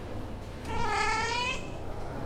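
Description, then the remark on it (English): A single drawn-out cat meow, about a second long, with a slightly wavering pitch. It comes through clearly over a low, steady background rumble, and no one speaks. “The cat seems to know where he's going.”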